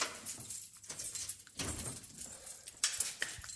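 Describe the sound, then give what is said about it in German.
Keys on a keyring jingle and clink in quiet bursts as a different key is picked out to lock a door whose lock was replaced, with a louder rattle partway through as they are shuffled and handled, and no voices. “Jetzt muss ich hier wieder einen anderen Schlüssel nehmen, weil hier eine Schlossheraustauschung vor äh, äh, stattfand.”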